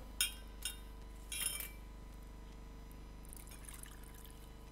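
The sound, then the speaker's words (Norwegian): A few sharp clinks of glass and utensils, then a soft, steady trickle of water being poured into a glass, fairly quiet, with no one speaking. “Nå kjente jeg det, at jeg trengte litt vann.”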